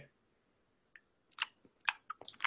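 Wet chewing of gum with sticky smacks and clicks, starting after a brief silence and continuing in an irregular, fairly loud rhythm; no one speaks.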